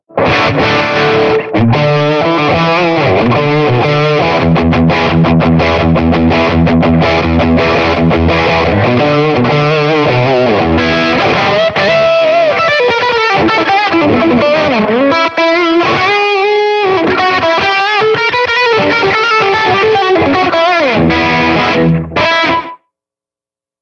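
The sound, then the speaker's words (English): Overdriven electric guitar played solo through a Fender Deluxe amp with short slapback delay and a blues breaker drive, chugging low riffs giving way to bending lead lines, loud, ending abruptly. “No, this one's Fender Deluxe. It's got a little bit of slap, delay, and a blues breaker drive.”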